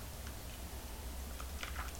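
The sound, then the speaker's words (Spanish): A quiet sip of freshly brewed coffee without sugar, with soft mouth and slurping sounds near the end, over a low steady background hum and no talking. “Cafecito para reiniciar la semana informativa en este programa, específicamente en este lunes 19 de septiembre de 2022, así que me voy a dar un sorbito sin una gota de azúcar.”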